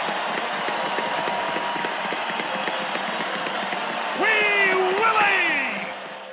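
A large crowd claps and cheers in a steady, dense roar of applause; near the end a loud wavering tone, like a horn or a whoop, rises over it and then fades.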